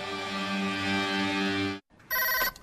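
The Actúa registration telephone rings loudly before being answered: one long, steady electronic ring, a brief pause, then a shorter second ring that cuts off abruptly, with no voices.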